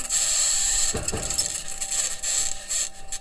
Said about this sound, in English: One of the spacecraft's two microphones captured the raw 16 minute recording where you can hear the noise of its six metal wheels driving across the red planet. The audio also contains an unexpected high pitched scratching noise.